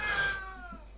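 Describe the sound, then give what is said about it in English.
A single meow from a pet cat, drawn out and sliding downward in pitch, fairly clear with no talking over it. “And that's my cat.”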